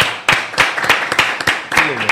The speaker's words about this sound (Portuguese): salva de palmas.